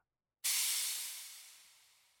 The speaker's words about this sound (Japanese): ああ火を止めなきゃ味噌汁が煮立ってる